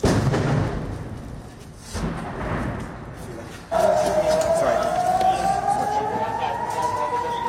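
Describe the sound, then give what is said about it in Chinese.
An air raid siren alert in Ashkelon, Israel, about 4.8 km from the Gaza border, during Hamas rocket fire, starts partway through, a loud sustained wailing tone that slowly climbs in pitch and holds over rumbling background noise. “Uh, one of the air raid siren alerts, usually followed immediately by uh, strikes.”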